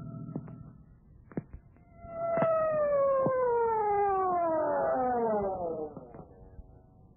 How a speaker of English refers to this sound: But why the siren? The only traffic out here is on horseback.